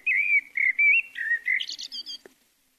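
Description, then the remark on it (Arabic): A small sparrow by a window sings in the morning, a sweet, rapid run of bright whistled chirps, clear, rising toward higher trills before stopping abruptly. “وبقرب النافذة رأت عصفورا صغيرا يصدح صداحا عذبا فقالت سهام أيها العصفور الجميل إنك تحيينا تحية الصباح صباح الخير”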